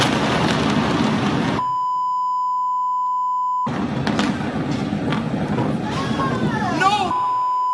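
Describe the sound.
A loud, roaring explosion at a warehouse of highly flammable nitrocellulose rumbles continuously amid a large fire, cut off by a long steady censor beep, then the roar returns with agitated voices shouting.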